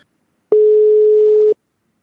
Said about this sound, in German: Hörst du, hörst du den Klingelton gerade? Ja weil ich habe ja noch ein Ass im Ärmel, nämlich ich kann auch einen Telefonanruf machen.